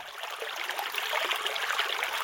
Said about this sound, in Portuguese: Não haveria som de máquina de lavar, mas o som das águas. O mais alto som era o do rio